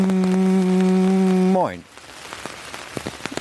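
A loud, steady droning tone holds, then bends and cuts off, leaving a soft, continuous patter of rain hitting a surface, with scattered sharper drips and taps.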